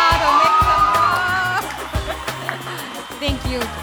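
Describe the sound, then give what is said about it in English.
A youth club group of young voices cheers and whoops loudly for about a second and a half, then fades as a thumping music beat takes over with scattered shouts underneath. “So um, can I get my youth club to at least like cheer or shout?”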